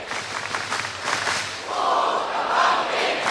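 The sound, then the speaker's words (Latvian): A large crowd loudly chants a name together in unison and applauds, the collective voices swelling toward the end amid a dense wash of cheering and clapping. “vārds arī tiek skandēts pūlī un arī skaļi plaudēts.”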